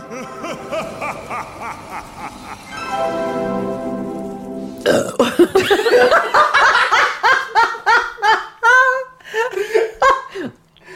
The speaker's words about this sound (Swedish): Men det är så roligt att du, du rapar liksom som en riktig kar. Herregud.